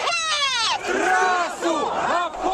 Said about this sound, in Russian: Отчасти это заметно по репортажу «Радио Свобода» с митинга в защиту Химкинского леса на Пушкинской площади, который вы сейчас слышите.